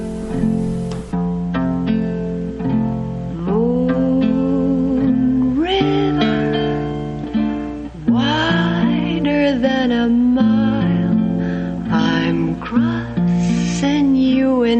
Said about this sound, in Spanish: Holly Golightly, canta con su guitarra cuando está sentada en su ventana